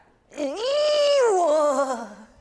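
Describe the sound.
A person voices a single drawn-out, exaggerated moan imitating an orgasm, rising then slowly sliding down in pitch over about two seconds. It is loud and whiny, almost cat-like, with no other sounds.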